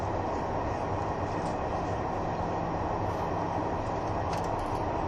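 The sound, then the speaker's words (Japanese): A Kiha 71 series diesel train running steadily as it approaches its terminus at Beppu, with a continuous low rumble and rolling noise, a few faint high squeals near the end, and no voices. “湯布院の森でのひと夏はいかがでしたでしょうか列車はまもなく終点の別府に到着します。”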